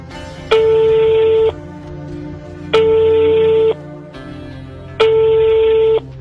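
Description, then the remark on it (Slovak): A telephone ringing tone, a call to the parliament switchboard, sounds three times, each a steady one-second electronic beep separated by pauses of about a second, over a faint low background hum. “Telefon na ústredná parlamente, prosím.”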